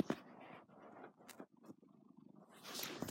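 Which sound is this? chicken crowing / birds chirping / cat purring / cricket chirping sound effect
cat purring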